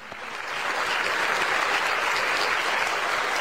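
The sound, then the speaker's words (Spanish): Steady applause from a crowd, a dense crackle of many hands clapping that swells quickly at the start and holds at an even, fairly loud level throughout, with no voices. “Ustedes, esperan los aplausos y después ahí se meten.”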